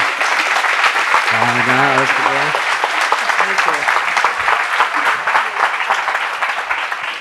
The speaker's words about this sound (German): Eins, zwei, drei. Nico! Ein Applaus für Nico Rittenau, bitte.